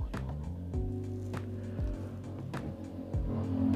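Steady low rumble of road noise from inside a moving car, recorded while driving as a microphone test. A droning engine hum and periodic thumps from bumps in the road are heard, fairly loud, with no one talking.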